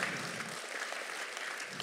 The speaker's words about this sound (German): Es war der Geburtstag der Gemeinde und deswegen sage ich Happy Birthday International Church. Kommt das ein Applaus wert? Heute haben wir Geburtstag.